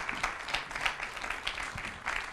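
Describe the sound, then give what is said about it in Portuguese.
An audience applauds to welcome a specialist joining them, a dense wash of many hands clapping steadily at moderate volume with no pauses and no voices over it. “Também peço palmas para este nosso especialista que se junta agora a nós.”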